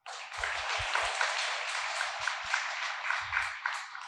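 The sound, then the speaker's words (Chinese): An audience applauds steadily for about four seconds, a dense wash of many hands clapping at an even, moderately loud level with a few low thumps scattered beneath. “我们以热烈掌声”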